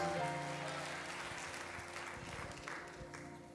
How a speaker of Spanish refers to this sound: Denle un aplauso fuerte a Jesús. Oh, gloria. Aleluya.